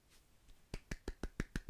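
A brief run of about six hand claps in quick, even succession, crisp, with no talking over them after a second of quiet.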